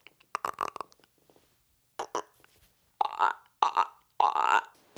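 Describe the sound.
A person imitates a frog's croak with their voice: a quick rattle of throaty pulses, then short bursts, then three longer, loud, gravelly croaks.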